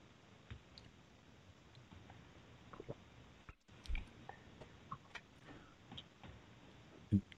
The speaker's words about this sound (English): excuse me one second while I take a sip of coffee here.